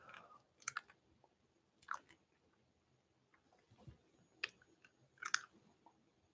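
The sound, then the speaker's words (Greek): Quiet crunching and clicking of someone chewing a hard candy, a handful of sharp cracks spaced irregularly with soft mouth sounds between them and no talking. “Τώρα ακούτε την καραμέλα μου.”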